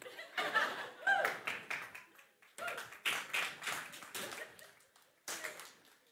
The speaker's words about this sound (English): I'm waiting for more. No, just kidding. The less claps I get, the longer I take.